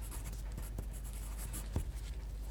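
A pencil tip scratches across paper in quick strokes as vocabulary words are noted down, with soft taps as the tip lifts and lands. Quiet and steady, with no voices.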